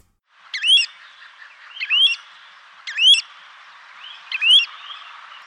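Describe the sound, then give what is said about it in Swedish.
Four clear, whistled three-note calls from a Pacific golden plover in flight, evenly spaced about a second apart, with the middle note stressed, over a faint steady background hiss. “Om vi, om vi börjar då spela upp Sibirisk som den som jag upplever som den lockar, kan vi få ett exempel här.”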